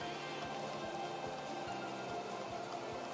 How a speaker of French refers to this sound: Et lui, il est bien content qu'elle ait pensé à son parapluie, parce qu'effectivement il pleut